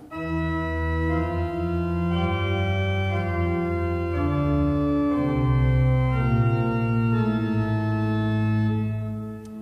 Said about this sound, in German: Ich spiele jetzt mal nur das Pedal, das klingt so.